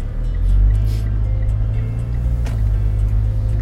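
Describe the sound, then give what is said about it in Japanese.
A car turns at an intersection, its steady engine humming at low pitch with a brief swell in revs early on, road rumble continuing throughout and a short sharp click or tick midway; no one speaks. “ちょっと待ってくださいねここは交差点なんで曲がってからお話をします”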